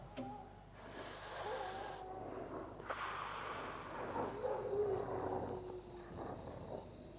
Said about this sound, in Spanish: ¿Y esos perros? ¿Escucharon los perros afuera del lugar?